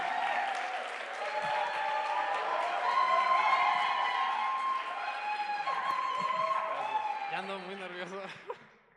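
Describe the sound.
A crowd claps and cheers steadily for about nine seconds, with whoops and voices rising over the dense applause before it fades out at the end.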